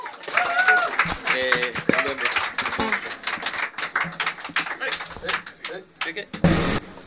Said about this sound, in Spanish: Oye, un gran aplauso